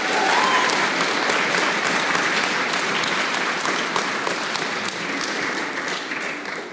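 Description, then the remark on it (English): An audience at a church service claps steadily to honor a member donating one of his kidneys, a dense wash of hand claps that holds at an even, fairly loud level for several seconds before easing slightly near the end. “which is worth clapping for, and we should all do that right now.”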